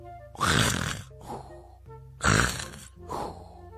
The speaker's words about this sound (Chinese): 忽然大青蛙停止了跳动，将嘴巴贴在枕头上，鼓着大大的肚皮躺在床上，再也不动了，而且还打起了呼噜。